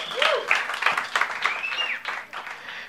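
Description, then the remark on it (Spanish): A crowd claps steadily for about three seconds, a dense, sustained patter of many hands, with a few bright whistles rising over it early on before the applause gradually thins. “Aplaudan bien, señores.”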